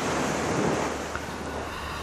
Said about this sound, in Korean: 아, 파도 소리입니다. 파도 소리. 자, 이 파도 소리가 일부에 나가는 노래 에 섞여서 나올 거예요.